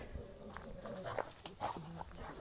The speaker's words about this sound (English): oh, another dog behind the behind the fence growling